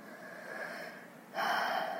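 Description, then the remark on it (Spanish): A slow, deep breath drawn in and then let out more forcefully, airy, with no talking, the exhale louder than the inhale. “Toma una respiración profunda, inhala y exhala.”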